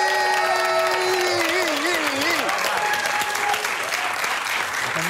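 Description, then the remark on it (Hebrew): A crowd applauds the special guest Rivka Michaeli steadily for about five seconds, dense clapping with cheers and whoops rising over it, loud and sustained throughout without any speech. “תנו הרבה כפיים לרבקה מיכאלי!”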